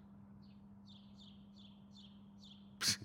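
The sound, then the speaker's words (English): Birds chirp faintly, about six quick high calls in a steady series over a low constant hum, ending with a brief sharp noise burst. “Every time I do that, they stop chirping.”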